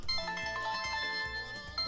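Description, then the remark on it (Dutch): A phone ringtone plays a bright, repeating electronic melody of stepped tones, steady and fairly loud throughout, with no one talking over it. “Ja, telefoon komt dwars doorheen, maar ik heb het inmiddels een. Eh, eh, stopgezet.”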